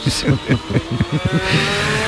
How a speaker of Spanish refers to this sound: cierto, que estamos escuchando este ruido, aunque sea de coches, pero que va a ser eh, también eh, banda sonora.